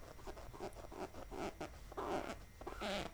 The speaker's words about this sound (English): can you hear that? That is literally, oh, i being videoed, but that's literally me like my nail, like my hand rubbing against my push up bra.